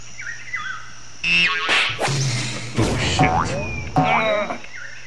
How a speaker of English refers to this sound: Yeah, sounds like he farted again. Oh, it certainly affected the cameraman.